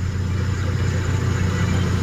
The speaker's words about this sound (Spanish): Gutiérrez, yo en estos momentos transito la carretera turística y me he encontrado con un desfile de 10 camiones, o sea, volteo.